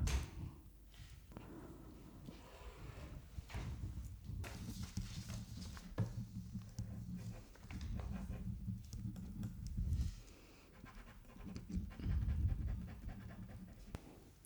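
A pen scratches steadily across paper in short, irregular strokes, with soft breathing in the background, followed by a light tap as the pen is put down.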